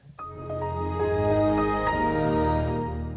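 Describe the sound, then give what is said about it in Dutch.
A Microsoft Windows XP startup sound: a warm, swelling synth chord with bright notes chiming in on top, sustained at steady loudness for about three seconds and heard alone, with no talking. “Windows XP.”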